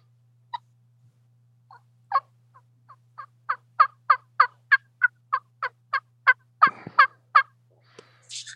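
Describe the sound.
A soft turkey call made on a mouth call by barely tapping the tongue, as soft as it can be made: a quiet series of about fifteen short, evenly spaced yelping notes, sparse at first, then steady, over a faint low hum.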